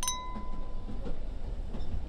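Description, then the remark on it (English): Glasses clink together once in a toast to 1889 and the success of a merger, on New Year's Day: a bright chime whose ringing tone fades over about a second, set against a steady low rumble of background noise. “well then, to 1889 and to the success of our merger. Cheers.”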